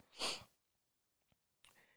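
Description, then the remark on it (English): A loud sniff draws air sharply through the nose, followed after a pause by a faint click and a second, softer sniffle near the end. No one speaks. “I apologize for the sniffles. My nose is wiling out.”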